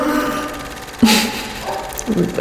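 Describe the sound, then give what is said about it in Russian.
A neighbor's dog barks a few times, one sharp bark followed by a couple of softer ones, muffled. “Прости, я смеюсь, у меня собака у соседей сошла с ума, и я, прям вижу на, на записи такой руф, руф, руф.”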